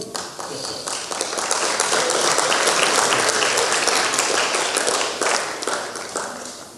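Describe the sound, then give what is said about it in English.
A crowd applauds steadily for a person invited up to speak, dense overlapping claps forming a loud, sustained wash that holds for several seconds before easing slightly near the end. “See how they clapped for you?”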